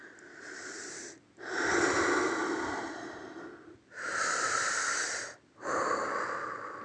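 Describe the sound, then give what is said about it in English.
Loud deep breathing in and out through the nose during a guided breathing exercise, with long airy inhales and exhales alternating in a slow, steady rhythm separated by brief pauses. No one speaks. “Through the nose, in and out, through the nose. Continue in your own rhythm. I just do a bit of noise so you can follow, but uh, in your own rhythm.”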